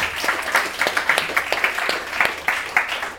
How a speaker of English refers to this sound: I think crowd, give yourselves a round of applause for that outstanding Foley work.